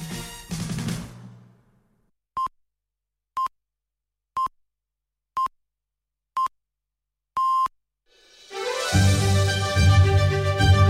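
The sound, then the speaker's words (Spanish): A radio time signal on Canal Sur Radio: five short, evenly spaced electronic pips one second apart, then a longer final tone, ringing out clearly in silence between a fading musical passage and a swelling music bed. “7.30 minutos están a punto de llegar las señales horarias.”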